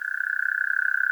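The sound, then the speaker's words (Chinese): A steady, high-pitched trill of many tiny frogs calling in summer by a pond at ITI's Dongshan campus, a rapid pulsing buzz that holds one pitch for the whole second with no pauses and no voices. “然后夏天的时候会听到很多青蛙在叫”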